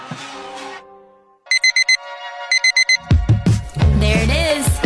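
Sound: alarm clock ringing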